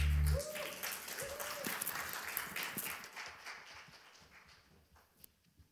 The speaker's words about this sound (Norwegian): Takk til sangerne og musikerne. Skal vi gi dem en eh, stor applaus?